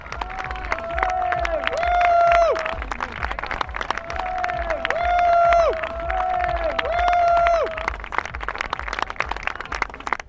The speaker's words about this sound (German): Niedersachsens Behindertensportler des Jahres. Dicker Applaus für Dina Dicke.